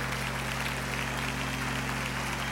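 A church audience claps steadily during worship, applauding the presence of God, for the whole stretch. A dense, even patter of many hands sounds over a sustained low tonal hum, with no one speaking.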